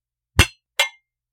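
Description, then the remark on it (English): Two quick, bright clinks of wine glasses touching in a toast, about half a second apart, fairly loud, each fading fast into silence with no talking. “So, cheers. Cheers.”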